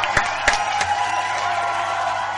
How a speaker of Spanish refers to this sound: aplausos y todo.